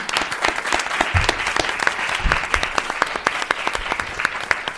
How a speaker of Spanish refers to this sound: Un aplauso, por favor.